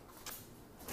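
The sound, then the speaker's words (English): Quiet kitchen clatter of delivered cold groceries being put away, with two brief soft bursts like a fridge door or drawer moving, heard faintly in the background with no talking. “Excuse the background noise because I'm putting away cold groceries.”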